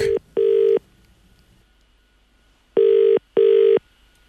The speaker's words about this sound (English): and he's looking for a toy, so he rings a toy shop in Cork.